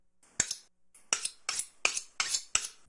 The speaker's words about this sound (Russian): Нам понадобится 40 грамм красного лука. Их нужно будет порубить также на довольно крупные кусочки по 2 сантиметра.